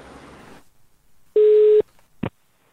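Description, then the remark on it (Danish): A single steady telephone ringing tone of an outgoing call to a Danish truck driver sounds once, clear and fairly loud, then a brief click follows as the line is picked up, with quiet line noise around it. “han ringede nemlig til en dansk lastbilchauffør”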